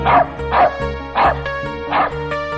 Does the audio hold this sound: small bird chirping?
no